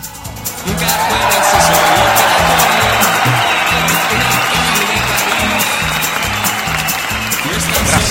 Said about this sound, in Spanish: Fuerte el aplauso.